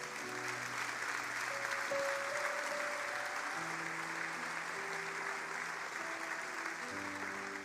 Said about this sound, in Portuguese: Posso ouvir um amém? Dê um aplauso ao Senhor nesse lugar.